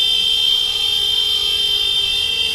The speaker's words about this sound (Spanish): Es el sonido de la mañana, el de las protestas de los baserritarras que hoy han sacado los tractores a la carretera, unos 300 vehículos en caravana para mostrar las dificultades de futuro de las 10.000 explotaciones familiares del territorio.